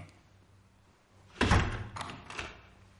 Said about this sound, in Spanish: Entran en casa de Jesse. Cierra la puerta.